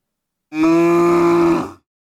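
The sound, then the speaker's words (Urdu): A single loud, sustained moo from an angry cow whom a dog keeps barking at so she cannot eat her hay, lasting just over a second, harmonic and steady with a slightly strained, forceful tone, heard alone with silence before and after. “کتا گائے کو ڈرا رہا تھا اور تنگ کر رہا تھا تاکہ وہ کھانا نہ کھا سکے اس پر گائے کو غصہ چڑھ گیا غصہ چڑھ گیا یعنی شی گوٹ اینگری اور اس نے اسے کہا”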